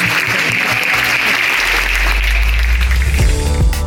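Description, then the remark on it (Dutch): A crowd applauds loudly and steadily to welcome arriving Ukrainian participants, a dense wash of clapping hands that fills the whole stretch, with a low rumble building underneath partway through. “En die werden met applaus onthaald.”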